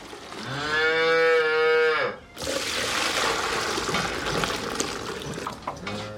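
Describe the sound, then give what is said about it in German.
A loud cow moo with a rich harmonic tone lasts about two seconds from Renate, a seven-year-old German high-performance dairy cow that has just given birth to a bull calf. It is followed by a noisy, splashy barn ambience with rushing and clattering sounds. “Mit ihren sieben Jahren ist Renate zwei Jahre älter als die durchschnittliche deutsche Hochleistungskuh.”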